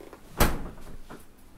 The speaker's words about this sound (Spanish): Da un paso atrás y deja que la puerta se cierre. Escucha cómo suena cuando regresa a su lugar.